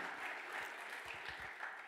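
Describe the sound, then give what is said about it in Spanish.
An audience claps steadily, a dense wash of many hands blending into continuous applause that holds an even loudness throughout, with no voices standing out. “Y dele otro aplauso.”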